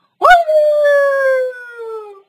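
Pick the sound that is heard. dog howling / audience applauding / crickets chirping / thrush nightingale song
dog howling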